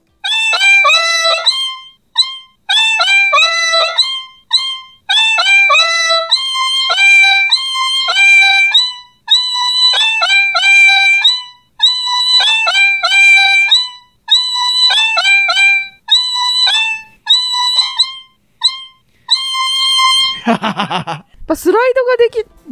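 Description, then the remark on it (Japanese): An otamatone played from a keyboard: a whiny, voice-like electronic tone bounces through a short melody in repeated, sliding phrases, loud, ending in a quick warbling sweep. “鍵盤で弾くより、おたまとん自体で。”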